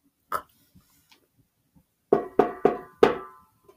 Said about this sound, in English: and he nearly ran out to take it from her but he heard her knock